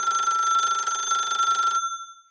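A loud telephone bell rings in a rapid continuous trill for almost two seconds, then stops abruptly, leaving a fading metallic tone. No one speaks.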